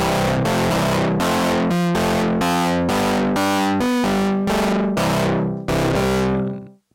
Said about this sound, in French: T'es pas obligé de mettre le chorus, tu peux mettre ah, distorsion. C'est quasiment trop rock